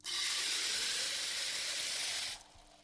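Water pours in a steady, hissing stream into a shaker bottle as 200 millilitres of water are added to Athletic Greens powder, for a little over two seconds, then cuts off abruptly. No one speaks.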